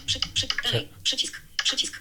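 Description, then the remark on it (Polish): Rapid bursts of crisp computer clicks as a person clicks on the last item while signing documents electronically, three quick clusters of tapping with short pauses between them, sounding like keys or a mouse being pressed in quick succession. “Ja sobie, jest tu ostatni już, więc to sobie klikam.”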